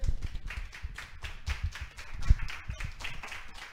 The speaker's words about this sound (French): Mesdames et messieurs, c'était Astin Potine. Une bonne main d'applaudissement à nos invités, s'il vous plaît.